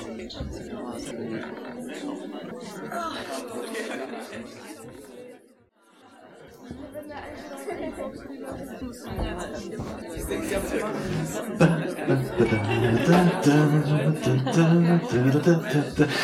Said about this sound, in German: Zwei Minuten, dreht euch nach rechts und links, zu zweit, maximal zu dritt und äh, erzählt euch gegenseitig, was ist aus eurer Sicht der Grund, weshalb es, wozu gibt es die JKW Treto? Eure Zeit, dreht euch um, schnattert kräftig. Viel Spaß.